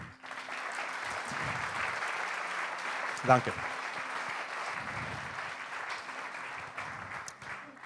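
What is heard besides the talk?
audience applause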